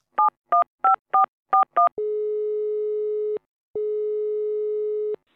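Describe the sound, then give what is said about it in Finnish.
Six quick touch-tone beeps as a phone number is dialed to call people who spread anti-vaccine and conspiracy material online, then two long, steady ringing tones with a short pause between them. Loud and clear, with no voices. “muassa soitit ihan henkilökohtaisesti näille ihmisille, jotka, jotka levittää rokoste, rokotevastasta ja muutenkin salaliittoista materiaaleja netissä, niin mi- miten se meni se soittelukierros?”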